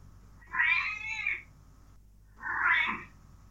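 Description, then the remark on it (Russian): A cat meows twice, each a drawn-out, wavering call about a second long with a short pause between them, fairly loud, over a faint low hum. “Пусть за нас говорят кошки.”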